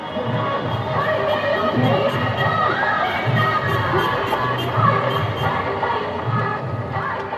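A noisy festival crowd fills the streets of Patna, India, before sunrise, with people walking to the banks of the River Ganga. A steady, dense babble of many overlapping voices, with occasional shouts and cheers rising above the constant murmur throughout.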